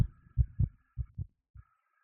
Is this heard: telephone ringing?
no